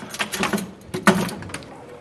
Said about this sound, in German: Genau, ich nehme jetzt den Schlüssel und schließe den Spieltisch auf.